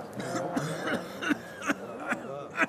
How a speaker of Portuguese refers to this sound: Um deles tossiu.